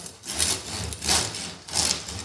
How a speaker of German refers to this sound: Und ja, was Sie jetzt machen müssen, ist natürlich ein Brot äh, durchschneiden. Ne?